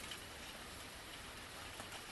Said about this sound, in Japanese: 雨の降る火曜日の朝だった